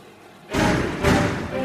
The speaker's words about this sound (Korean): 순간 충격의 말도 나오지 않았지만 그보다 더 큰 분노를 참지 못하고 난 주방 문을 열어 제꼈다.